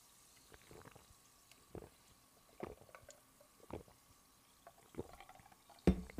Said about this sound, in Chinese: 不管是你在哪边，我们都要跟我一起喝一喝气泡水啦，干几杯啊，干几杯哦。